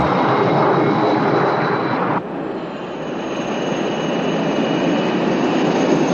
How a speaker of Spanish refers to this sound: el jet privado del Vaticano ...pisa el cielo rumbo a la reunión con Cabinet y el presidente chino